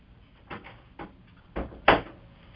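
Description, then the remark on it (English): A door is handled and shut, with a few muffled knocks and rattles building to a firmer closing thud, no voices present. “want to shut my door real quick.”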